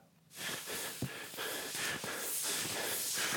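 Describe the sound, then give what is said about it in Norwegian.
Heavy, rhythmic panting and labored breathing from cross-country skiers in the Birkebeiner ski race from Rena to Lillehammer, loud, with harsh airy breaths repeating steadily for a few seconds. No one speaks. “Akkurat nå puster og peser rundt 10 000 birkebeiner skiløpere i kondomdress og raske briller, og de går fra Rena til Lillehammer.”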